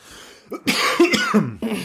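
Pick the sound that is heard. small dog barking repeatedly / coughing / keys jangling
coughing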